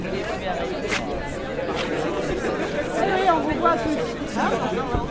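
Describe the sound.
Dense crowd chatter fills the very crowded Chat Noir bar, many overlapping voices blending into a steady, loud hubbub with occasional clinks and brief louder exclamations rising out of the din.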